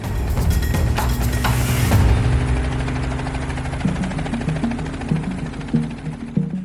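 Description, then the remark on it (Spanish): A blue helicopter takes off from a prison courtyard and rises over the penitentiary walls carrying two escaping inmates: a loud, dense mechanical roar with steady low droning tones and a broad hiss that thins out after two seconds, with no voices. “El helicóptero despega del patio y se eleva sobre los muros de la penitenciaría, hasta entonces una fortaleza.”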